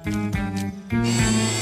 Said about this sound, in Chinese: 啊！工具手臂收起，好像锁好了。